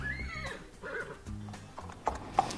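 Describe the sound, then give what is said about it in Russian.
A horse gives a loud, shrill whinny that tapers off, followed by a few sharp hoof clops on a hard surface, with no voices. “Да, кстати, в Израиле, в Иерусалиме особенно, не знаю, как и во всех других городах, но в Иерусалиме есть конная полиция.”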